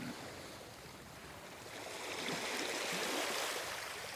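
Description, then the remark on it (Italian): Ocean waves wash onto a sandy beach in a continuous hissing rush, swelling louder partway through as a wave breaks and spreads, with no voices present. “Non c'è nessuno vicino a lei, solo sabbia e tanto oceano.”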